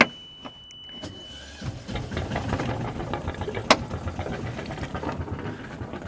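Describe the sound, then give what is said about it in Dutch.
A boat engine in the harbour of Makkum cranks over and catches after a quiet moment, then settles into a steady, rumbling idle with a slightly uneven chugging texture, as the fog has lifted and some sun has come out. “Motor gestart. Lekker geluidje.”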